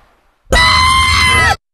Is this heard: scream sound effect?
yes